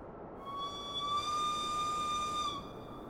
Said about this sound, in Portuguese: Um novo apito soou das portas da cabine.